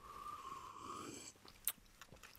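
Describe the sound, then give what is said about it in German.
A drawn-out, whistling slurp of lemon juice straight from a citrus press for about a second, followed by a few sharp lip smacks and wet clicks, with no talking. “Kurz, ich könnte es auch aus der Presse einfach ja, ein bisschen schlürfen.”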